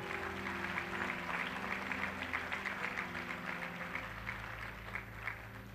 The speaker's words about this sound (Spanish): Dele un aplauso, aplauso, aplauso.